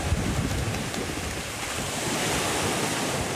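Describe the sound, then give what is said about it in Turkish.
Steady beach ambience at Antalya, Turkey, in early warm weather: waves and surf washing continuously, a broad constant roar with some wind rumble, fairly loud, with no voices present. “diğer yanda tatilciler denizin, güneşin tadını çıkarıyor. Erken ısınan hava ile birlikte Antalya'da plajlar dolmaya başladı.”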